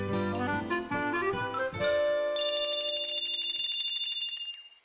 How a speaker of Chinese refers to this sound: 对啊，我也听到铃铛声了。